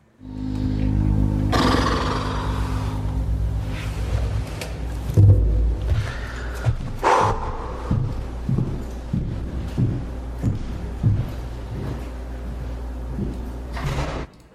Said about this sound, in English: okay, so first I want to just play this little this little chunk of, of sound where I got the door slam.